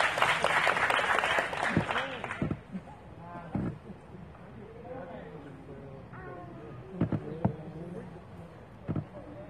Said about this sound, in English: Come on, clap your hands as they come.